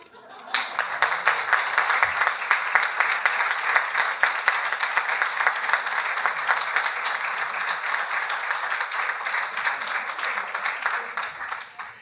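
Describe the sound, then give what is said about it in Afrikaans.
An audience applauds steadily, a dense wash of many hands clapping that starts abruptly and holds at a fairly even, loud level for about eleven seconds before stopping. “Julle kan definitief nog aanhou klap.”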